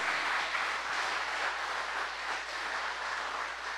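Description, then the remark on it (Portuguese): A crowd applauds the Lord steadily, a dense wash of many hands clapping together that holds at an even level throughout, with no voices over it. “Vamos aplaudir o Senhor.”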